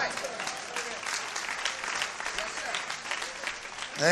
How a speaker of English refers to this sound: I like this little crowd over here. They clapping.